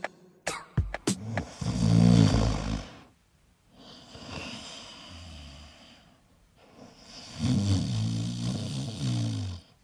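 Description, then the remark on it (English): Loud snoring from a sleeping person in three long, rasping breaths, each a rumbling low inhale or exhale separated by brief quiet pauses, with a few sharp clicks at the very start. “That's the sound of them snoring.”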